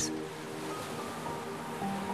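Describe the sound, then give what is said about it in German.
Steady ocean surf washes continuously against a long white sand beach, a broad rushing hiss at moderate volume with no distinct individual crashes, over a faint sustained tonal hum. No voices. “Du plumpst in einen weichen weißen Sand. Das Meer. Du bist am Meer gelandet.”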